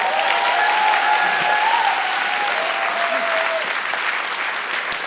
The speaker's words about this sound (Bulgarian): О, хайде, ръкопляскай, ако вярваш.